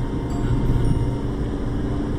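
The engine of an Every kei van drones steadily while driving on the Sanriku Coastal Road, a low rumbling hum with road noise that holds an even loudness throughout, no voices over it.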